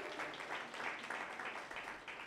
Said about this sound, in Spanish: Bueno, un aplauso para Dios.